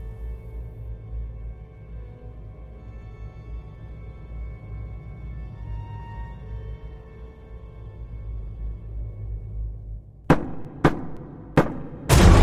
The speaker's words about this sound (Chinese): 一阵厚重的敲门声，我在半睡半醒中睁开了双眼，这声音是从哪儿传来的呢？是楼下。